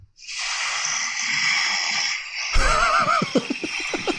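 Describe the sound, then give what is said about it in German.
A long, breathy hiss of air gives way to a rough, fluttering snore with a wavering, vibrating tone, from a sleep-tracking app's recording of a night's snoring, on a slightly noisy recording, with no talking. “Und, und jetzt möchte ich einfach mal wissen, ob, ob ihr denkt, dass das bedenklich ist oder nicht, weil da steht 31 Minuten lang Schnarchen dran und das klingt so.”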